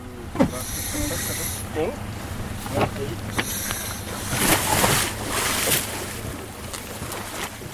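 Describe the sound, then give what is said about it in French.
A boat engine recorded underwater during a dive with air tanks, a steady low droning hum layered with high whining tones and crackling, fairly loud and continuous throughout. “Il y a aussi les bruits de bateaux qui sont très intenses qu'on va entendre.”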